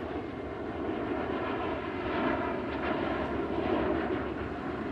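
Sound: airplanes flying overhead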